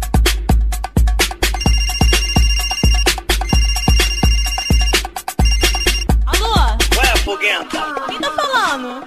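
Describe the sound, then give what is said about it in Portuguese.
A loud electronic mobile phone ringtone plays a punchy, steady beat with bright synth tones, then turns to warbling, chirpy melodic sounds near the end. No one speaks. “E agora não é assim tão longe, é que há um pastor que conversa com Deus pelo telemóvel.”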